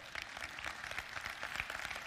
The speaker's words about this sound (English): Now, you, well, you can clap. That's great.